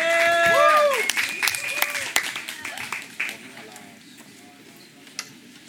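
An audience applauds to welcome a tap dancer to the stage, with dense, crackling claps and high whoops over them, loud at first and then thinning out to a few scattered claps by the end.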